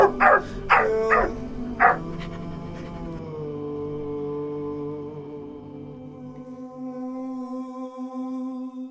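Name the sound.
dog barking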